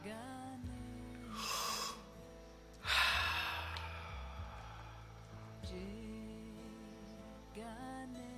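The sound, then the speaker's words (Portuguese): A slow, deep breath drawn in slowly during a breathing exercise and then let out as a long, airy exhale, clearly audible over soft, sustained background music. “Mais uma vez, inspire mais lentamente.”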